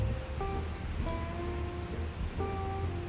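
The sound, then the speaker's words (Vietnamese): Steady rain hisses in a dense, even wash of noise as it begins to fall in Saigon, Vietnam, on 30 August 2021, with a low droning hum and brief tonal whines from city traffic rising and fading beneath it. “trong khi đang lay hoay không biết phải nói gì vào lần đầu tiên thì sài gòn bắt đầu mưa”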